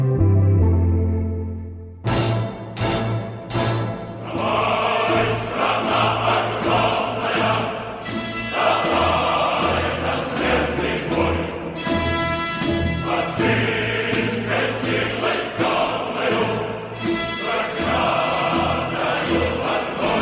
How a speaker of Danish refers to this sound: Og her der hørte vi en lille bid af den sovjetiske propaganda sang, den der hedder Den Hellige Krig.